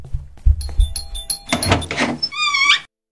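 A doorbell rings with a bright, high tone near the end, after a few dull thumps and a stretch of busy noise. No one speaks.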